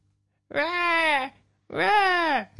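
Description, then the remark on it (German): A person mimics a crying baby with two drawn-out, wavering wails separated by a short pause, loud, with no other talking. “Äh, das geht mit so einem Baby, äh, mit, mit so, äh, hm.”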